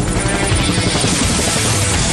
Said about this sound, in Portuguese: Atenção, a máquina voadora da Rádio Metrópolis vai decolar